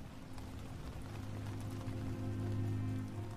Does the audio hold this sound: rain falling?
yes